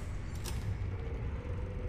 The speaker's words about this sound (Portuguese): A criatura abre a porta.